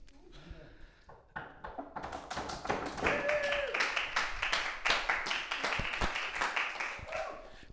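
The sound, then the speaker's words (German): A live audience at a Hossa Talk Live show at an evangelical community in Fulda breaks into applause: a few scattered claps grow into dense, steady clapping from many hands, with a brief whistle and some voices mixed in before it tapers off. “Tosende Massen jubeln uns zu.”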